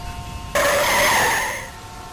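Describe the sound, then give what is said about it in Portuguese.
A car's tires suddenly shriek into a loud, sustained skid lasting over a second, with strong tonal squealing over engine noise, then easing off as the car swerves into the left lane on a bridge while chasing another car. No one speaks. “Tá, agora você vai pra esquerda.”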